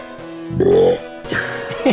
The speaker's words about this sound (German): Euer Ehrenamt, ich hab gerülpst.